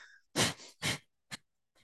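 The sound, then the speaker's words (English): Quick, forceful breaths in and out through the nose with the mouth gently closed, as a breathing exercise: about four sharp puffs in under two seconds, fairly loud, with no talking. “Right, so we're gonna breathe in and out of our nose.”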